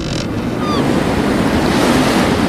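Steady roar of sea waves and surf fills the scene, wind-like and continuous, with a brief, faint high seagull cry early on.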